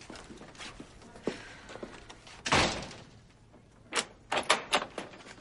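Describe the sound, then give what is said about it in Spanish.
A door swings shut with a solid thump, followed by a few sharp metallic clicks and scrapes as a bolt is slid into place, fairly loud. “Alba avanza unos pasos, cierra la puerta y echa el pestillo”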